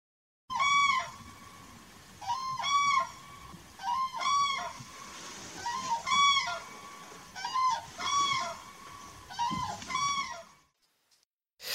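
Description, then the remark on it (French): A flock of common cranes calling in flight: loud, trumpeting bugle calls repeated in overlapping bursts about every second or two, several birds together, clear over a low rumbling background, then fading out. “Je ne tenterai pas ici de l'imiter, alors je vous invite à aller l'écouter si vous n'avez jamais entendu un vol de grues cendrées passer.”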